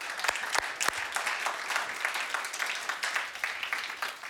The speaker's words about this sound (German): Nochmal Applaus